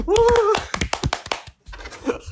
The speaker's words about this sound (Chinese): 好，我们为了帮他们加油，再帮他们拍手一次。